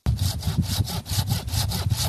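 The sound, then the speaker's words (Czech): A hand saw cuts through a young spruce trunk, chosen from a dense cluster being thinned in a winter forest thicket near Habrůvka in the Blanensko area, Czech Republic. It makes steady back-and-forth strokes, about eight rasping pulls with bright, gritty high-end texture and a low woody rumble, with no voices. “Vybrali jsme tady smrček z takové skupinky, co tady vidíme za námi, protože ta skupinka je hodně hustá, musí se to prostříhat, prořezat, aby ty to měli samozřejmě světlo, aby měli vláhu a prostor.”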